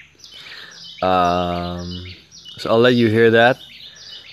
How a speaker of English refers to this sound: and maybe you can hear the birds chirping here around right now, or just the sounds of the, of the jungle. It's pretty great, pretty great view around here.